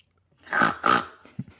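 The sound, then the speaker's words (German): Someone mimics a pig's snoring grunt: two loud, raspy snorts in quick succession, then a couple of faint short noises. “Das klingt so wie immer, als würde mein Vater schnarchen.”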